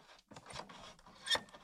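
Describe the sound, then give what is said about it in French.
A small knob on a piano, moved up and down to make the piano felted, shifts with a few quiet scraping clicks and a brief woody rub, the sharpest click landing near the end. “Et là, donc j'ai la petite molette”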